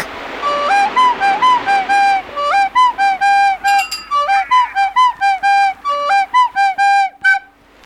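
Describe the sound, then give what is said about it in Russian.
A boatswain's whistle pipes a shrill, insistent call summoning all hands on deck, trilling in quick bursts that step up and down in pitch. It sounds loud and continues for several seconds with no voices. “Свистать всех наверх”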